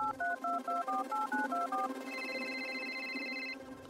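A quick run of about a dozen short keypad dialing beeps on a mobile phone, then a steady, fairly loud electronic ringing tone holds for about a second and a half as a call is placed after going down from a building. No one speaks.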